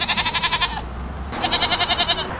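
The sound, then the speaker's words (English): Goats bleating: two long, quavering calls with a rapid wobble in the voice, separated by a brief pause, with no talking. A herd of nearly 40 goats grazing to eliminate non-native plants near the intersection of Kirkham and Elm Avenues in Webster Groves. “An experiment involving goats grazing near the intersection of Kirkham and Elm Avenues is ending.”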